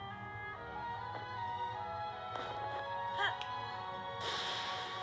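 Sharp crackling bursts of a game lightning strike flash out over a steady musical backdrop, the last one a bright sustained crash that lingers to the end.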